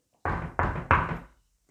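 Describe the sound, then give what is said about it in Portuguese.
Three firm knocks on Mr. Rabbit's door by Little Red Riding Hood, in a steady rhythm, each a loud, deep thump with a short resonant ring, followed by silence. “Chapeuzinho vermelho, abra a porta!”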